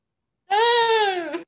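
A single drawn-out cat meow, about a second long, steady and fairly close, with a slight drop in pitch at the end. No one talks over it.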